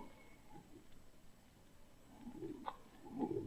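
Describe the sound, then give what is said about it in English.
A low, wavering hum swells and fades in soft irregular pulses, faint and muffled as if coming from inside a metal object, with no voices. “It's a curious humming sound that seems to come from inside the object.”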